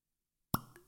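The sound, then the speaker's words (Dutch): A single sharp, hollow pop as a wooden cork with a bit of plastic around it is pulled from a bottle, fairly loud after a moment of silence, followed by a brief fading ring. “Ah, shit, er zit zo'n plasticje om dat houten kurk heen.”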